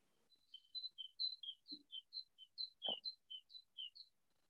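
A bird chirps in a quick, steady series of about a dozen high, short notes alternating between two pitches, fairly soft, with a couple of faint low bumps in the background.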